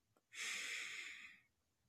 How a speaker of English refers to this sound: As you deep breathing in,